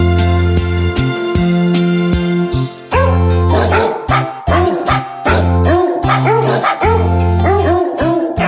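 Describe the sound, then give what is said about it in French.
A small, brand-new baby puppy barks in a rapid run of high, squeaky yips, fairly loud, over a steady low droning hum, with a quieter stretch before the yapping picks up. “Il y avait un petit chien, un petit bébé chien tout neuf.”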